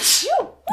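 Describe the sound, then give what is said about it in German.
A single sharp sneeze bursts out with a hissing blast, then a brief voiced tail, followed by the start of another sound right after. “Gesundheit. Gesundheit. Danke.”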